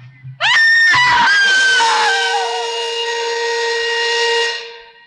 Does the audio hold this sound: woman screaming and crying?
yes